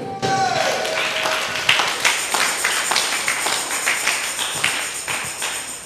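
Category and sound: crowd, audience clapping hands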